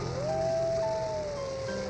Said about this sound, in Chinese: 你听，有狼！